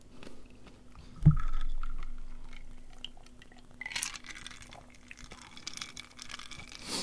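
Wet chewing and crunching of food, with a soft thump early on and bursts of crisp crackling bites later, quiet with no talking.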